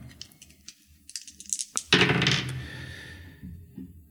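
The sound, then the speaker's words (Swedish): Dice rolled for a skill check in a tabletop role-playing game clatter onto a hard tabletop in a short burst of rattling hits that quickly settle and fade, preceded by a few light clicks. “Eh, inga bra tärningar då.”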